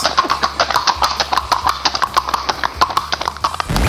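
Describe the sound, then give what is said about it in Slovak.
Pony hooves clip-clop in a quick, steady rhythm of sharp knocking beats, loud and continuous throughout with no voices over them, from a healthy, lively pony kicking and jumping about. “že aj napriek tomu nie je poník vôbec primrznutý a ani spomalený, že vyzerá normálne zdravo, kope okolo seba o 106, skáče, besní sa, blázni sa.”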